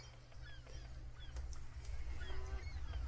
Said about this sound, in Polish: Na razie to słyszę mewy.